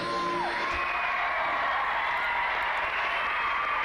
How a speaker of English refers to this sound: Crowd goes wild.